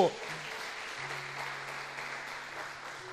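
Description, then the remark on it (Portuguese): An audience claps steadily for a few seconds in praise of Jesus, a dense wash of applause at an even level, with a low sustained tone humming underneath. “Dê a Ele uma salva de palmas se você crê nisso.”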